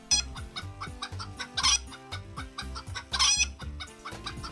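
Domestic Thai chickens clucking in quick, repeated bursts, steady, with a couple of louder squawky calls standing out; no one speaks.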